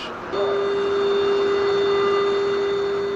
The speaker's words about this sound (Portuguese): E esse áudio é real, tá? Foi ela que gravou dentro do vagão.